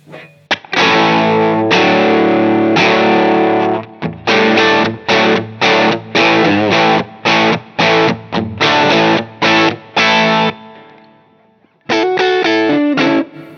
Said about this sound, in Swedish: Har man att det är väldigt overdrive-karaktär liksom.